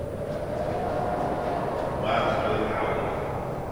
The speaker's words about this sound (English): The Museum of Contemporary Art is located in the old Tucson Fire Department Station Number 1 building downtown. It's a brutalist structure with large garage doors that howl when the wind blows.